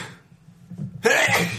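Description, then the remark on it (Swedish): A single loud sneeze bursts out suddenly after a second of near-quiet with a low background hum, then trails off with some breathy noise. “Prosit.”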